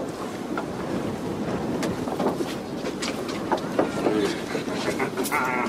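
A boat runs steadily across open water, its low engine rumble mixed with rushing wind and splashing spray, with occasional sharper slaps and clatters over the continuous noise.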